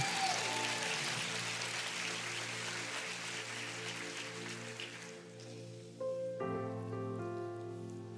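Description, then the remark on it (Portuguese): A crowd claps steadily for about five seconds over sustained keyboard chords, the applause thinning out as the music carries on alone with a new chord. “Palmas, salva de palmas pro rapaz aí que se garantiu.”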